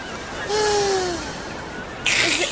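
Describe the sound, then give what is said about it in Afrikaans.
Loud, airy slurping of orange juice among ice through a drinking straw: a long noisy pull with a whistling, gliding tone, a short pause, then a second harsh slurp starting abruptly. “is dit nou nodig om so hard in my ore te slurp”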